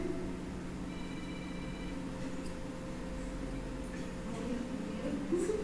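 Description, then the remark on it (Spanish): A faint electronic mobile phone ringtone chirps briefly in the audience during a Spanish-language talk on the Bible, thin high tones over a steady low hum and murmuring background. “Póngale vibrador, por favor, a su teléfono, hermano.”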